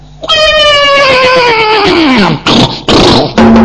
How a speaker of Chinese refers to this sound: 有马的怪喊声。嗯，高英，什么是哥？你听西北。高英一听西北真有马，嗯，跳下去。弟儿俩迎着战马的悲嘶之声，这才找到了悬崖之上。